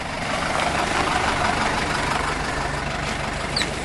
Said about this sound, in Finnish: kauppa-auto tulee. Tämä kauppa-auto kulkee Keski-Karjalassa. Nyt ollaan Rääkkylässä toistakymmentä kilometriä keskustasta luoteesta.